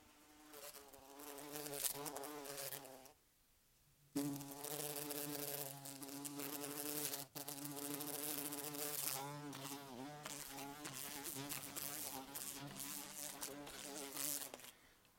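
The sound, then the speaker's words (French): A bumblebee buzzes loudly, its droning pitch wavering as it repeatedly bumps against window glass, with a brief pause and a sudden break in the buzzing. “et là le son d'un bourdon se cogne à la vitre, encore et encore, avec un humain qui l'enregistre, avec toute la cruauté du monde.”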